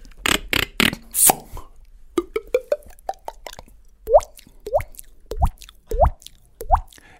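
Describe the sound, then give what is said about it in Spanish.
A voice imitates water drops with the mouth: a few sharp clicks and quick pops, then five distinct plops with an upward-bending pitch, evenly spaced and fairly loud, with no talking. “Entonces tiene un, proceso de aprendizaje y son cosas como la gota de agua, ¿no?”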